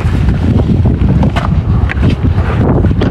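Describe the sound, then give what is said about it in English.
A loud, blustery, sudden gust of wind buffets the microphone, a continuous low rumbling roar with gusty surges throughout, overpowering, with no voices heard. “oh my god, it's with windy all of a sudden.”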